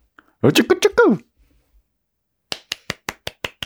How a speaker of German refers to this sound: Ein kleiner Applaus. Ja, bitte, bitte, bitte.